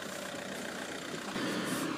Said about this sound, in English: Because as I'm hoping a car doesn't pull up this hill, and the car is pulling up this hill, how inconsiderate of the car. And the car is stopping right beside me.